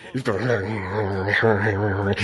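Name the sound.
voice imitating a growl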